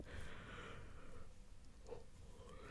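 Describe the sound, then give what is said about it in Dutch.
A long, breathy yawn, one drawn-out exhale with a slight catch near the end, with no talking. “Zo, ik moest even gapen.”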